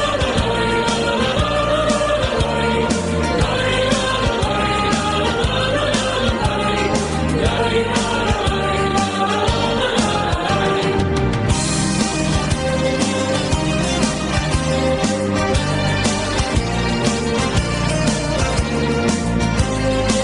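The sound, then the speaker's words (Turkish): A loud, full-band song, one of those played at Fenerbahçe's football stadium, plays without a break for the whole stretch, driven by a steady, punchy beat with dense instrumentation filling the mix. “Bu işte Fenerbahçe'den falan bahsederken Fenerbahçe'nin de stadında çalan şarkılardan bir tanesidir.”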